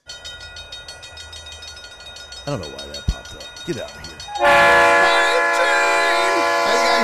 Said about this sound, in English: Oh shit. We got a train coming already? What?